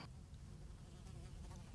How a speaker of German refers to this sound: Ja, wir haben hier eine kleine Fliege im also, Studio.